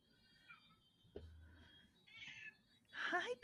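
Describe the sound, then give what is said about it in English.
A cat meows a couple of times, the final meow louder and rising in pitch, with faint background noise and a brief low thump between the calls. “did you hear her? I did. She's like, yes, I agree.”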